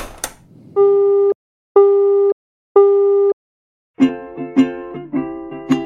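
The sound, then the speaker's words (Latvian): A telephone busy tone after hanging up: three steady, mid-pitched beeps of equal length with even gaps, followed by a livelier run of plucked tonal notes. “Atvienoju.”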